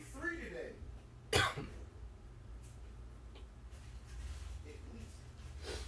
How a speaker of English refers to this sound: Got me coughing so much I'm crying.